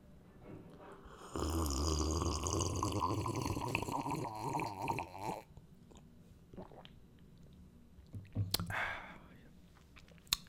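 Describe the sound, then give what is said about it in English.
Drinking water, with several seconds of loud, wet gulping and swallowing, followed by quieter mouth clicks and a short sharp rustle. “So i drink some water.”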